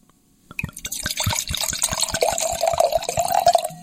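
Italian red wine from Chianti, Tuscany, pours steadily into a glass, a continuous gurgling splash with a rising liquid tone as the glass fills, set against faint rhythmic low knocks and no voices.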